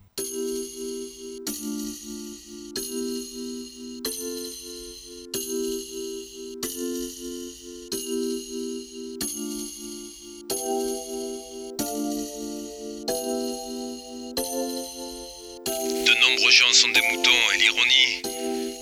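A French rap track's instrumental intro: a loud sequence of sustained chord blocks repeating in a steady pattern, then a bright, swirling burst of sound surging over the final few seconds.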